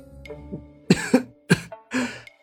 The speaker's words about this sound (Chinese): 裴玉说完了一大段话，又克制不住咳嗽起来。